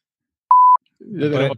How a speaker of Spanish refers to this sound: Pon, un, pon un pitido, pones un pitido. Pones un pitido por encima y ya está.